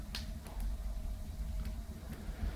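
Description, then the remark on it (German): A steady, continuous rushing hiss from running heating radiators, with a low rumble underneath and a few faint ticks, fairly quiet and unchanging throughout, with no voices. “Das Rauschen ist die Heizung und äh, sobald die merkt, das wird warm, automatisch dreht die natürlich runter und macht sich selber dann aus.”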